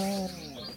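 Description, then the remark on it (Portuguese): A small bird chirps nonstop into someone's microphone, a short burst with a sustained tonal call sliding into quicker, rising tweets, fairly loud against a faint background. “Assim como o passarinho que não para de cantar no microfone de alguém.”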